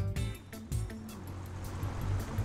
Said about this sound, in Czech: Popravdě, když slyším ten zvuk toho tvýho letadla, tak jsem vždycky nervózní. Ale to ne, neber to tak, ona to je jako hundrtka zlatá